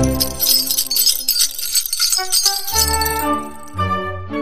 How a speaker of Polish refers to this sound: A właśnie, dzwoneczki. One musiały być zawsze i to też była satyra, bo dźwięk dzwonków oznaczał przybycie kogoś ważnego. Zatem błazen samozwańczo uznawał się za celebrytę i nie potrzebował potwierdzenia, bo zawsze jak szedł, to było słychać dzwonki.